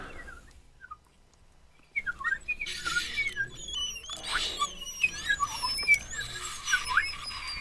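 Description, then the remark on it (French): On Radio Grenouille, someone imitates a nightingale's song with rapid, high whistled chirps, warbles and trills, starting after about two seconds of near silence and continuing busily to the end. “Il me faudrait un petit oiseau perché tout en haut d'une branche.”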